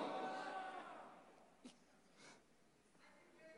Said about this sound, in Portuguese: Tá ofegante aqui, tá ofegante. Tô sentindo o vento daqui, o vento tá batendo na minha orelha.